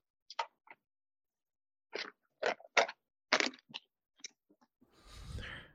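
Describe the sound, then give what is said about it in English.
Crunching an Oreo cookie: a series of sharp, irregular crunchy bites with short pauses between them, ending in a softer, sustained rustling chew. “Okay, I just I got to use this one because it's my favorite cookie.”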